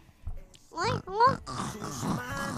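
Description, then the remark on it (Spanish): A person imitates a pig, with two short, squealing oinks followed by a stretch of rougher snorting grunts. “El cerdo.”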